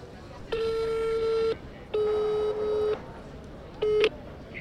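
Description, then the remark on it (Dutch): A steady electronic ringing tone of an outgoing phone call buzzes in long one-second bursts, twice with short gaps, then starts a third time and is cut off, fairly loud over faint background noise. “gaat even zijn telefoon pakken.”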